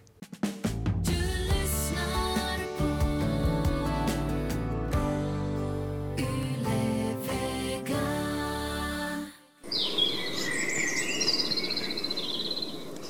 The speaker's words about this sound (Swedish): I tidiga morgontimmen, 16 minuter över två, sjöng den här fågeln utanför mitt fönster. Okej, okay, det hörs flera fåglar, men den som sjunger skvirrit känner jag inte till.